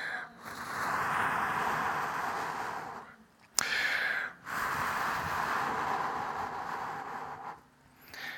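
Breath blown straight into a microphone by a preacher blowing on the listeners while calling on them to receive the Holy Spirit, in three long, loud, rushing gusts of airy noise, with short pauses between them and a brief sharp pop at the start of the second.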